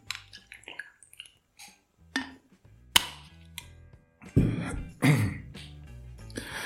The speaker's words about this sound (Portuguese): Pausa para tomar água. De novo.